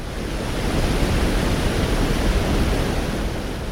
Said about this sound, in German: Denn neben der Schleuse rauscht die Aller über ein Stauwehr, ein künstlicher Wasserfall, gerade mal anderthalb Meter hoch.